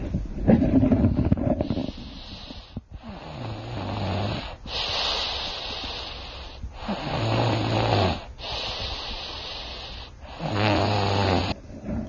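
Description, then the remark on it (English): A voice imitates loud, rasping snores, about five drawn-out breaths in a slow, steady rhythm with brief pauses between them, with no other talking. “So Oliver began snoring and snoring.”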